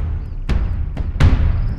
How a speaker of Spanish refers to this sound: Tambores de batalla se escuchan en el anáhuac